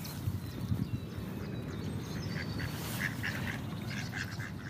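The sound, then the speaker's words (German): Several ducks quack steadily as apple pieces are laid out as feed for them, a busy overlapping chatter with short nasal calls repeating through the whole stretch, no voices present. “So, das Futter ist ausgelegt und jetzt sind die Enten auch schon deutlich aktiver geworden als gerade noch.”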